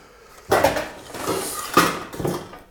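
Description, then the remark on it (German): Metal pots clatter and knock together in a kitchen drawer, a few loud clanks with a rattling, uneven rhythm and no one speaking. “ah, Töpfe.”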